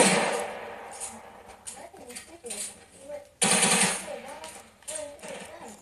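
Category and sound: sound effect, video game gunfire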